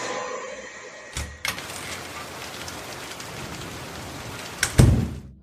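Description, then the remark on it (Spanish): Steady heavy rain pours down in a dense, continuous hiss, with a couple of sharp knocks near the start and a louder thud toward the end. No one speaks. “no veas cómo llueve.”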